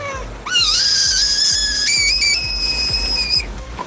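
A frog gives a long, high-pitched whistling call, a steady piercing tone that rises and holds for about three seconds, with faint low thumping underneath and no talking.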